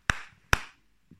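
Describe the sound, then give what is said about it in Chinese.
Two sharp hand claps about half a second apart in an empty bedroom, each followed by a long ringing echo that trails off. A faint low thump follows. “我拍手，响起很大的回声。”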